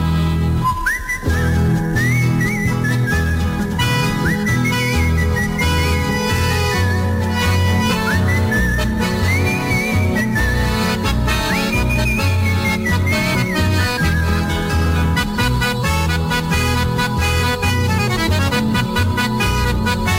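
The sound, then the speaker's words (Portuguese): A whistled country folk melody with ornate trills and slides, carried clearly and steadily over a dense strummed instrumental backing for the whole stretch, with no one speaking. “Eu trazia sem fastio, saudando a estrela boeira, uma coplita campeira bem floreada no assobio.”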